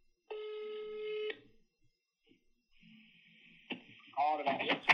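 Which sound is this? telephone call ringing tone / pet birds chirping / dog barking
telephone call ringing tone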